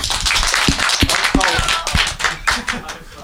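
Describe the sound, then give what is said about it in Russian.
A crowd claps steadily for a few seconds, dense overlapping hand claps with sharper individual smacks, while excited voices and brief cheers mix in underneath, applauding Artekrio after he is announced the winner of the battle with an 8-2 vote. “Ну что, победил Артекрио, давайте шум ему.”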